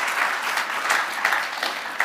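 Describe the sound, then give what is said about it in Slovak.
An audience applauds steadily, a dense wash of many hands clapping at an even level with a few sharper claps standing out, with no one speaking over it. “to je skvelé, to si zaslúži potlesk”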